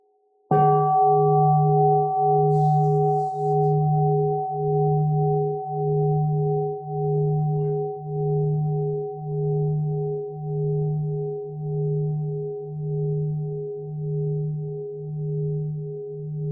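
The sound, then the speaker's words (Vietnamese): A single deep strike of a Buddhist mindfulness bell, invited by a nun, rings out and sustains for a long time, its low hum pulsing slowly as it gradually fades, with no voices present. “xin sư cô thỉnh một tiếng chuông cho mọi người à, buông thử trước khi mình tiếp tục”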